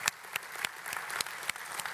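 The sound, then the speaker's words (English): An audience applauding in appreciation of people being honored, with many hands clapping in a dense, steady patter and occasional sharper claps standing out, sustained at an even level throughout with no voices heard. “Come on, let's give Him a clap and appreciate them.”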